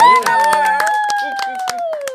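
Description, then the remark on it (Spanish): An audience claps in a steady rhythm for guests being introduced, sharp beats roughly every quarter second, over loud sustained musical tones that slowly slide downward. “quiero, quiero, aplausos para ellos, por favor”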